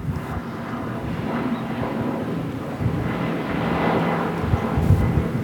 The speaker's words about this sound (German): Oh, ein Bötchen!